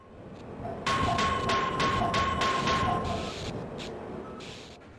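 A video game crowbar swinging and striking again and again, about eight quick whooshing blows in a steady rhythm, loud, with a faint metallic ring underneath and no voices; a classic sound effect from an older video game.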